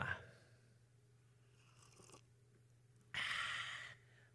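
A noisy slurp of hot coffee being sipped, loud and lasting under a second, following a fainter earlier sip, over a steady low hum with no talking.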